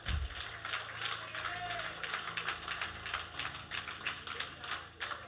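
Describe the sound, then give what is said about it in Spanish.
An audience applauds for the Lord, many hands clapping in a dense, steady crackle that lasts several seconds with no voices, over a faint low sustained hum. “Dele un aplauso al Señor mejor.”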